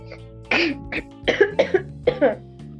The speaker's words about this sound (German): kompletter Hustenanfall.